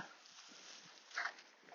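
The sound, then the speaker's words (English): A dog named Wolf snuffles and shuffles around on the grass of a field, with soft sniffing breaths and faint movement noises, quiet and low-level with a brief louder snort partway through. “Because I was just like, oh, he's come up behind me, which is a pain.”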